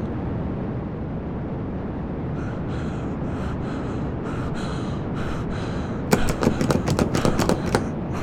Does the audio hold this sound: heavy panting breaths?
yes